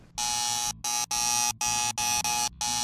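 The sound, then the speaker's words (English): A harsh, loud game show wrong-answer buzzer blares in a rapid series of six short bursts separated by brief gaps, with no talking over it. “Ugh, that boy, that that buzzer never hurt so bad before.”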